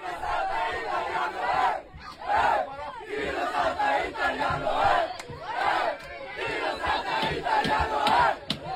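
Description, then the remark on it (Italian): Dozens of kids chant loudly in unison on a metro train, the rhythmic shouted refrain "Chi non salta italiano è" repeating over and over with crowd noise and echo, in a video from TikTok. “Chi non salta italiano è, urlano decine di ragazzini che a quanto pare non sono italiani.”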